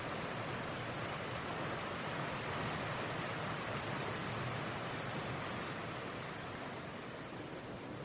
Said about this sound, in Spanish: De día, el plano sobrevuela el bosque de coníferas de Twin Peaks, El agua cae por una cascada.